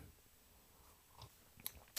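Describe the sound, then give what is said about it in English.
Quiet sipping of a drink: a few short wet mouth clicks and slurps spaced over a couple of seconds, the last ones a bit louder, with no talking. “So if I'm sipping in your ear, I'm being respectful about it.”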